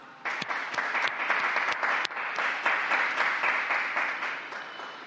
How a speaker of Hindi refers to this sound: आज मरिया अंतोनिया दी पाज वाई फिगुरेवा को संत घोषित किया गया जो अर्जेंटीना के संत हैं तब उन्होंने ताली बजाकर उन्हें सम्मानित किया